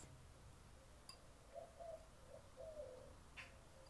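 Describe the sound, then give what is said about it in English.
Soft dove-like cooing calls repeat a few times in the garden of a house, with a couple of brief sharp chirps from other birds and a low rumble of ambient noise. “Same as right now that I am in the garden of my house and listening to all the birds,”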